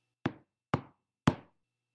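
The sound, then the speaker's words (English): Three loud, evenly spaced knocks on a door, each a sharp thud with a quick decay, with silence between them and no voices. “Suddenly, a loud knock erupts.”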